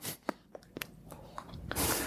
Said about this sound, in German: Simon stopft sehr zärtlich die Pfeife nach.